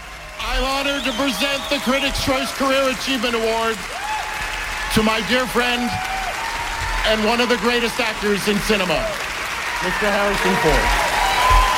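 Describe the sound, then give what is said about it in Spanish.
Continuous audience applause at the Critics Choice Awards ceremony in Hollywood fills the whole clip, a dense steady patter, while a loud voice speaks emphatically over it, its words partly buried by the clapping. “Casi no se ha escuchado porque por los aplausos, la emoción, esto es los Critics Choice Awards, que son una serie de premios muy importantes que hay ahora en Hollywood eh, y que premian lo mejor del cine y de la televisión americana.”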